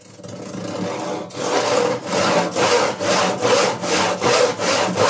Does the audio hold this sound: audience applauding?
no